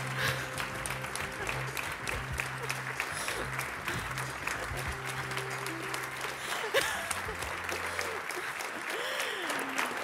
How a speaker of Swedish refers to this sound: längsta och härligaste applåd va?